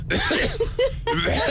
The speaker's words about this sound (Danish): er det noget med, nu er du skuespiller, øh, som ja, er det noget med, at man lige sådan skal varme stemme op? Kan man det på en eller anden måde, eller gør du det, eller er det bare et host?